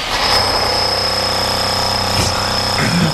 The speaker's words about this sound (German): Alltagslärm. Das, ja, Alltagslärm. Ah, ja, das ist ein Baustelle. Was sagt ihr? Presslufthammer.